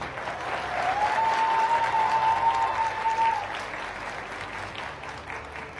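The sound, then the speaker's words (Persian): Steady applause from an audience, a dense wash of clapping that holds at a fairly even level for several seconds, with a thin sustained tone briefly cutting through the middle. “این تشویق ها کمه ترسناکه؟”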